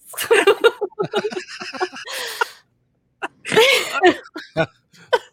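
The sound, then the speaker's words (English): A loud sneeze bursts out amid short vocal noises and light laughter, with a brief pause before another forceful, breathy burst follows. “God bless you.”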